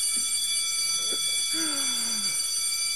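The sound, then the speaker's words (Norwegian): A school bell rings continuously, a steady, shrill electric tone that holds for the whole stretch, with a brief faint voice sound underneath. “ja, men det ringer inn. Det ringer inn.”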